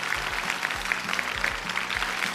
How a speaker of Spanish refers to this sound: ¡Aplausos!